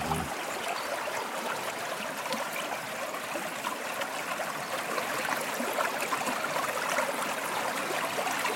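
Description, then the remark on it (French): Steady rushing and burbling of the Drôme river in spring, flowing past a gravel bank, a continuous bright hiss of water with small gurgles, even in loudness throughout, no voices. “Amis auditeurs, écoutez le son de la Drôme qui coule.”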